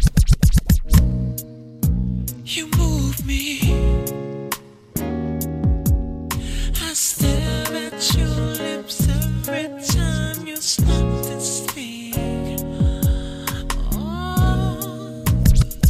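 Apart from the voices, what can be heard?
music track playing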